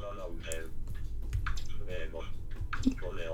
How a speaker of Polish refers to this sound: Tak, teraz ja to klawiaturą robię. Mhm. Mogę tu wejść enterem.